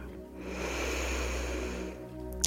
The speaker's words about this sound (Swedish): Oh, vi kan avsluta det här med att ta ett riktigt djupt andetag in. Andas in.